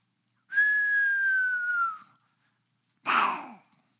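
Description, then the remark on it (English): A person whistles a long, gently falling tone, then after a brief pause blows a short, breathy burst of noise, vocally imitating something dropping and crashing. “give y'all some sound effects this morning. It's a crash and burn deal.”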